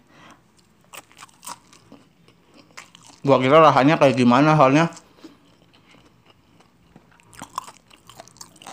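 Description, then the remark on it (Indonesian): Crunchy chewing of fried cabbage, a run of sharp crackly bites and crunches, then a short stretch of a man talking, then more crisp chewing at the end. “enak banget gue baru nyobain sih ini kol di goreng.”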